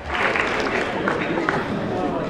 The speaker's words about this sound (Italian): Doverosi applausi, doverosi applausi per Ficarra e Picone che stanno iniziando il loro clip, il loro sketch.